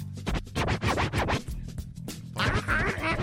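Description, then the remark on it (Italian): Rapid DJ turntable scratching, a loud run of sharp back-and-forth record strokes with swooping pitch, busy and continuous over a low beat, with no voices. “E basta frustare sto povero giradischi.”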